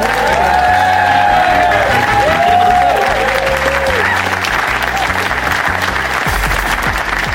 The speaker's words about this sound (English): please give a massive round of applause to the amazing Charlie Higson.